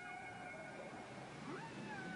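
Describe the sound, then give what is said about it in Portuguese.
Humpback whale song: drawn-out, wavering tonal moans with a few rising, swooping cries, heard continuously over a steady underwater hiss, with no talking. “Outras vezes, elas voltarão depois de uma ausência de seis meses e a peça terá mudado e uma canção diferente vai estar na parada de sucessos das baleias.”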